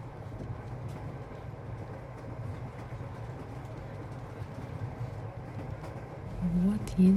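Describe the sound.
Steady low rumble and rattle of a passenger train carriage in motion at night, with faint indistinct voices in the background and a louder humming surge near the end.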